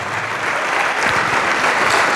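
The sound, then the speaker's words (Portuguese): A church audience applauding in the name of the Lord, a dense, even wash of many hands clapping that holds at a strong level for the whole stretch, with no voices standing out. “Vamos aplaudir bastante, igreja.”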